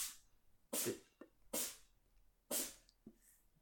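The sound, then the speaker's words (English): A cat sneezes several times in quick succession, with three sharp sneezes about a second apart and softer snuffles between them, with no talking. “Top five cat sneezes just happened.”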